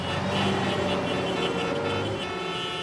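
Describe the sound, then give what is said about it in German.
Several car horns blare together in a honking concert, a sustained, overlapping chorus, loud and dense, with steady tones layered over one another for the whole stretch. “Dann spielen wir das absolut spitzenhammermäßigste Hubkonzert, das ihr je gehört habt.”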